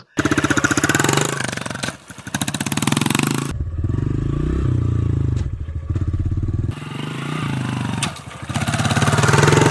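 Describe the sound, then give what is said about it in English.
A loud, buzzing dirt bike engine rattles at high revs while riding, then abruptly drops in pitch and roars back twice as gears are shifted without the clutch, with a big gear shift clunk at each change. No one speaks. “And what I mean by that is when you're shifting, it takes a little bit more effort, but when you shift, you hear and feel a big clunk.”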